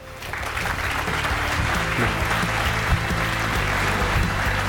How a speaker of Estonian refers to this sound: palun suure aplausiga